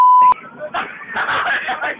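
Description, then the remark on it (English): A loud, steady censor bleep tone sounds for about a third of a second at the start, then cuts off abruptly as muffled voices and chatter take over. “When we're done, I'm gonna take out all the background noise, and then I'm gonna um put in a bunch of beeps on a page.”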